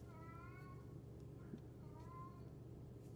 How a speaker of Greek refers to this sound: Να η γάτα. Να, το. ναι. Ζητάει. Ναι, ναι, ναι. ναι. Να ζητάει για να, βρει. Σαν να μιλάει.